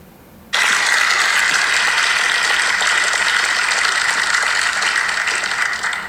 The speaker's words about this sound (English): They were clapping even before he got up.